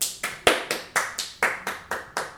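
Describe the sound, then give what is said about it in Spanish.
A boy claps his hands alone in a steady, brisk rhythm, about nine sharp claps in quick succession, moderately loud, with no voices. “soy el único niño que aplaude, güey.”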